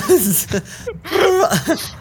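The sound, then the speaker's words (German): A voice imitates a man screaming while gurgling beer in his mouth, with strained, wavering vocal bursts mixed with throaty, rattling noise, fairly loud over about two seconds. “er, er, er, er, schreit so und gurgelt dabei so rum, so.”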